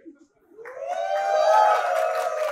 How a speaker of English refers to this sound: Without Eli Stefansky, oh, you give such a great cheer.